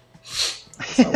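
A single sneeze: a breathy, hissing burst rises and fades, then a short voiced, throaty sound follows, with no clear talk over it.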